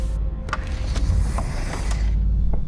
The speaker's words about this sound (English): Pressurizing docking port. Docking complete. Opening cabin side door.